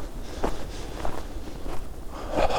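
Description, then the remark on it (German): Quick, crunching footsteps of a person running with a microphone through deep snow in a forest, about five heavy strides in a steady running rhythm, fairly loud, with no voices. “Mit dem Mikro jetzt durch den Schnee zu rennen, durch den tiefen Wald.”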